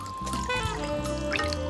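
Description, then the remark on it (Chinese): Cooled, boiled fragrant vinegar pours through a strainer to filter out spices, in a steady, continuous trickle lasting under two seconds, with soft background music beneath it and no talking. “拿出滤网过滤掉新香料。”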